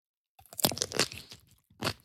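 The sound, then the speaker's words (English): A crunchy bite into a sandwich followed by a few seconds of wet chewing, with another distinct crunch near the end; no one speaks. “Okay, I have a very long question for you, so you can eat your sandwich.”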